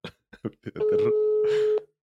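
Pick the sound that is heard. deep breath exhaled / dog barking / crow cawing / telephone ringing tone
telephone ringing tone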